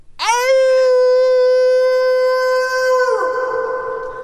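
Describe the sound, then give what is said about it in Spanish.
A person howls like a wolf, a single loud sustained cry that rises sharply then holds a steady pitch for about three seconds before breaking off into a rougher, noisier tail. “Así dice el, lobo”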